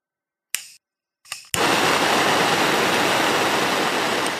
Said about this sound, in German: boah, äh, klingt wie ein Bunsenbrenner. ja, ich habe so ein kleines Flabiergerät bekommen. Ah. Für, tatsächlich auch mit dem Hintergedanken für den Kochstream, für die Küche ist das.